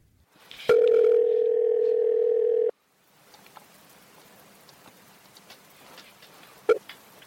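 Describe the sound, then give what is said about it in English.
A loud, steady telephone dial tone, heard as a phone call to author Eric Spitznagel is placed, hums for about two seconds, then cuts off abruptly, leaving quiet line hiss with faint clicks and one sharper click near the end. “Eric and I talked by phone.”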